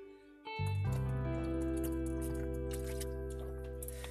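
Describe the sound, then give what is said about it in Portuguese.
Wet sipping and swallowing noises from someone drinking water, with a low muffled gulping rumble that begins suddenly and continues steadily, no talking. “Toma um pouco d'água, pera aí, pessoal.”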